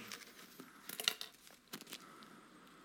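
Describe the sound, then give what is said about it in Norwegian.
Paper rustling as a sheet is handled, with a few sharp crinkling bursts in the middle and quieter shuffling before and after; no voices. “Jeg hadde jo et papir her, men det Jo, så det står her.”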